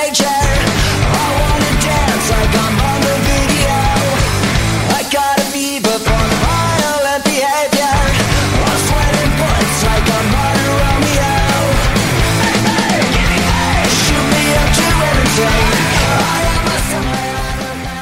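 A loud, dense punk rock song, the lead single from a band's 12th studio album, with driving distorted guitars and pounding drums, playing continuously with a couple of brief stop-start breaks partway through.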